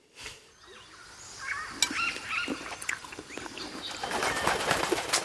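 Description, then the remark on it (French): A parrot named Gramsci flaps its wings in a few busy, rustling bursts, with short chirpy squawks scattered among the flutter and no one talking. “il se retrouve un matin alors que Severino prend son euh, petit déjeuner aux côtés d'un perroquet visiblement bien formé au vocabulaire de la Révolution.”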